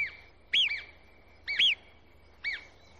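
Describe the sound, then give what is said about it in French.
Three sharp, high alarm whistles from a marmot ring out about a second apart, each a quick rising-and-falling peep that stands out loudly over a steady low hum, warning the other marmots around after an abnormal movement in the landscape. “Ces quelques coups de sifflet très puissants avertissent toutes les marmottes du coin qui s'arrêtent net et se tiennent sur leur garde.”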